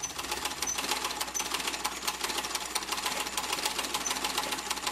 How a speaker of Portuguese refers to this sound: Noite. Foco em carretel de linha numa máquina de costura. A mulher costura uma peça de roupa em casa.